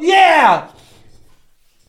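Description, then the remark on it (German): A single loud sneeze bursts out, sharp and voiced at first, as the person tries to turn away, then trails off quickly into quiet background noise. “Entschuldigung, wenn dir jetzt die Ohren weggeflogen sind. Ich habe extra versucht, mich wegzudrehen.”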